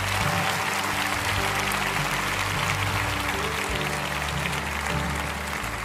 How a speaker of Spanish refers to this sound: Denles un buen aplauso a estas personas que han orado.